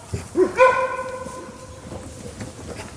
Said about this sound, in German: Das ist das Bellen eines Wolfes, was wir jetzt gerade gehört ah, haben. Ach, der kann bellen. Genau, das ist bei, ein Warnlaut bei den Tieren.